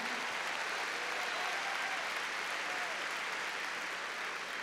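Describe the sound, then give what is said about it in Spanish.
A crowd claps hands loudly and steadily for the Lord at a religious gathering, a dense wash of applause that fills the whole stretch without pause, enthusiastic, with no clear voices standing out. “A ver, démosle palmas fuertes al Señor.”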